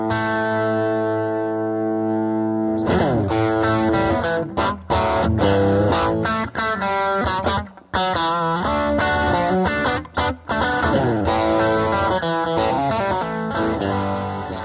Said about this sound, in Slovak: Tento zelený pedalík od Ibanezu, ktorý v podstate boostuje mid frekvencie, vďaka ktorým sa gitara dostane ľahšie cez mix napríklad iných gitár. Mo- mohli ste ho už určite veľakrát počuť a znie napríklad takto.